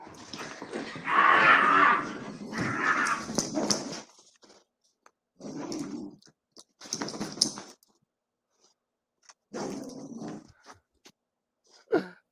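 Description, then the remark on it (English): A dog in a played video vocalizes in a long, drawn-out, whining burst, then gives several shorter yelps and grumbles separated by pauses, moderately loud, with no talking. “That is priceless. That dog.”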